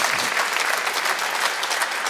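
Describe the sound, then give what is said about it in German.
Steady applause from a studio audience, a dense wash of many hands clapping at once, sustained and fairly loud for about two seconds with no break. “Ich, ich, will dafür gar keinen Beifall, das war einfach so.”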